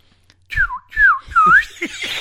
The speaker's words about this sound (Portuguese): Ó, você assoviou alto agora aí, vai de novo.